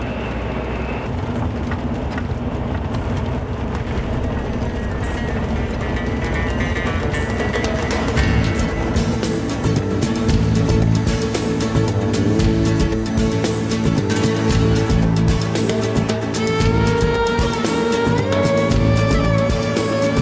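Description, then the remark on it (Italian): Steady engine and road rumble from a car moving at low speed in a queue behind a bus, approaching a mountain pass in the Anti-Atlas, with a deep drone that swells louder partway through. “Ah, In coda dietro un pullman, questa è una costante di tutte le montagne del mondo”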